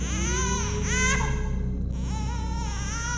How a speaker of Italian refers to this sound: Un suono, un flebile lamentio infantile che viene da qualche parte Fisher riesce a sovrastare il latrare di questi cani. Riesco a capire da che direzione viene. Sembra estremamente vicino.